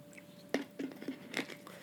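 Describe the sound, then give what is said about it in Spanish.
A preacher takes a quick drink of water during a sermon, with four soft gulping sounds spaced about a quarter second apart. “¿Me permiten un trago de agua rápidamente, por favor?”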